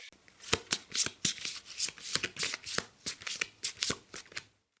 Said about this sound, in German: ich drehe die nächste Karte um und hier haben wir die neuen der Münzen.